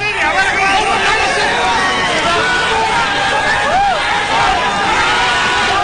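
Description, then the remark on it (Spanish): A large crowd at a boxing event in Japan shouts and roars continuously as a boxer is sent off, many voices overlapping into a loud, dense hubbub with individual yells rising above it throughout. “aquí está como despidieron a Pantera Negra en Japón”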